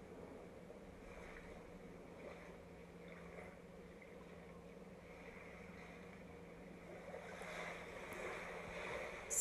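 Ocean waves wash steadily against a shore in a continuous, soft rushing hiss that swells a little louder toward the end, with no voices and a faint wind-like breath underneath.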